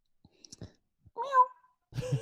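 A voice imitates a cat's meow, giving two short, drawn-out meowing calls close to the microphone after a few soft clicks and breaths.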